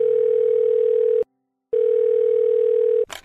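A steady telephone ringback tone of an outgoing call sounds two times, each long beep about a second and a quarter with a short silence between, then a brief click as the line picks up.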